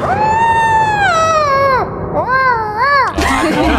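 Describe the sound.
A voice imitates the dog from the TV show Chaves with a loud, long wavering howl, then two shorter rising-and-falling whines, ending in a brief noisy burst.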